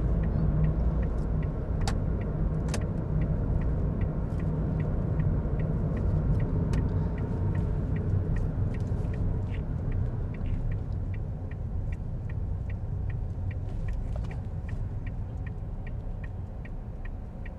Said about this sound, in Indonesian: ada apa ini macet sekali